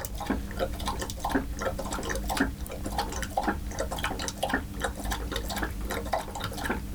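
A dog laps water in a quick, steady rhythm, a wet slapping repeated roughly twice a second over a low, constant background hum.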